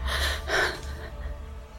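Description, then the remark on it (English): Two sharp, breathy gasps for air in quick succession, fairly loud, like someone badly out of breath, followed by a quieter trailing exhale with no talking. “Adrenaline fueled anxiety weighted me down as I landed at ground level, gasping for air.”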